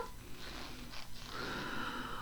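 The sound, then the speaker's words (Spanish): A long, airy inhale drawn through the nose as part of diaphragmatic breathing, steady and breathy with a faint hiss, with no talking. “Permitir que entre aire por nariz y salga por boca. ¿no? Lo que conocemos como respiración diafragmática. Inhalo,”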